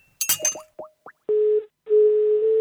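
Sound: telephone ringing tone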